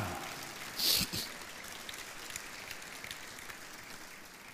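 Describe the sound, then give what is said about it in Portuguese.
An audience applauding: a soft, steady wash of many hands clapping together, with one brief louder swell near the start before settling into an even patter. “Quantos podem aplaudi-lo, glorificá-lo?”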